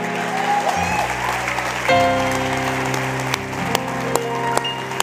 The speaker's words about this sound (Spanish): Denle un aplauso aunque sea cuadrado el Señor.